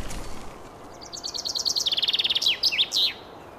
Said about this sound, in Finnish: Peipponen laulaa. Peippo tuossa maahan lensi oksalta.